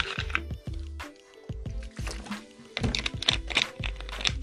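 Someone takes a sip of water, with a run of soft, wet gulps and swallows in a steady rhythm, no talking.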